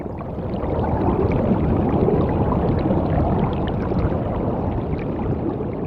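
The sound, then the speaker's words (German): Steady, dense bubbling and churning of water from a soundscape recording made along the Rhine river, continuous and fairly loud throughout, with no voices. “Also es blubbert, es zwitschert, es rührt, es knistert, es sind ganz, ganz unterschiedliche Geräusche.”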